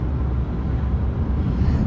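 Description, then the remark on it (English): A steady, low rumbling drone fills the space, the continuous hum of an engine and road noise heard from inside a car moving through Kiev just after crossing the Dnieper River, with no voices. “I'm in a car. We've just crossed the Dnieper River in Kiev,”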